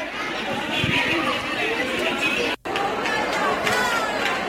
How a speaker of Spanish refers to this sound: En la calle Tarfia, a las espaldas del seminario, es habitual la concentración de menores para beber alcohol. Ahí tienen ese sonido recogido por los vecinos.